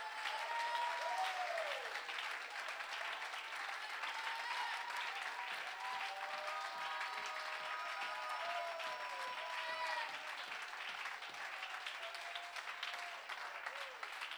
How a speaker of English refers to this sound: Oh, you ought to clap your hands and thank God for it.